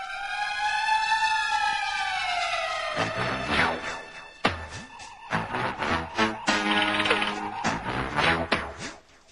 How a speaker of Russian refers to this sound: А инспектор гаджет начинается с сирены.